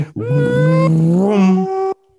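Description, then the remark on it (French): A voice imitates a Formula 1 V10 engine, a loud, buzzing, high-pitched whine held for about two seconds, stepping up in pitch as if shifting through the revs before cutting off. “C'était avec les bons vieux V10.”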